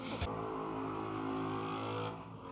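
A motorcycle engine revs steadily outside, a dense droning roar that holds for a couple of seconds after a sharp burst, then eases off slightly near the end.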